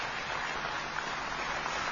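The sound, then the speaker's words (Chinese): Steady, dense applause from a concert audience as the conductor Ye Cong takes the stage before the symphonic work Ode to Peace, a continuous crackle of many hands clapping at an even level with no voices or pauses throughout. “伴随着观众热情的掌声，著名指挥家叶聪先生上台。”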